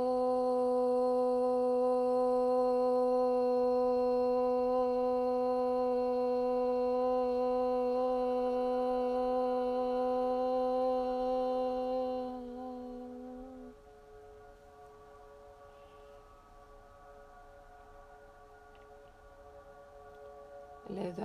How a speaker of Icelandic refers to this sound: Við skulum nú anda rólega og djúft inn saman og láta hljóðið om hljóma einu sinni og við öndum rólega að til að byrja.